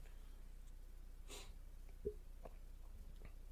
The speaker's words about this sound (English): If you hear me sniffing today too, it's sinuses. It's not Rona. It's sinuses.